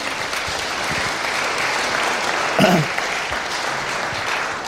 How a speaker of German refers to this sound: Und an der Stelle mal einen heftigen Applaus für unsere beiden, die hier taufen.